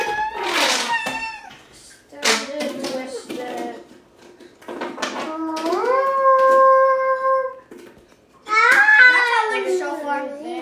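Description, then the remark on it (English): A person imitates a shofar with their mouth: several loud vocal bursts, including a long steady horn-like blast that bends upward in pitch, with other excited vocal sounds between them. “It sounds like a shofar.”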